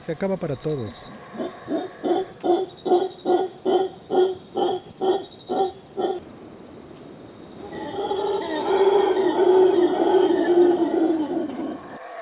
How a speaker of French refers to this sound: C'est un cri très particulier, celui du singe hurleur qui résonne dans les forêts tropicales du sud du Mexique. Le primate est menacé, danger d'extinction à cause de l'urbanisation, de l'agriculture, de la chasse, bref, des activités humaines.